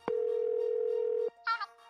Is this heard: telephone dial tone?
yes